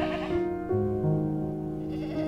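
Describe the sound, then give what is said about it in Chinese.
Sheep bleat in a steady, overlapping chorus of wavering, nasal cries, sustained and fairly loud for a couple of seconds with no talking. “听一听，有好多好多的云朵小绵羊哦，一只，两只，三只，四只。”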